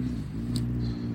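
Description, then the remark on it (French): A steady low rumble of road traffic with faint swishes, cars passing in the distance, heard from a park, continuous and fairly quiet with no voices. “Alors vous allez peut-être entendre euh, des bruits farfelus, des voitures qui passent euh, au loin, des bruits d'oiseaux, parce que je suis dans un parc.”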